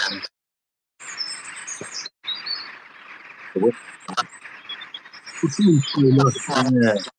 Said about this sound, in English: A bird or two